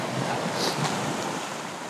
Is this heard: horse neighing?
no